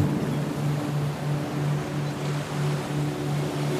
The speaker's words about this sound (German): Je stärker der Wind auf die Wasseroberfläche bläst, desto mehr Wellen sausen auf dich zu.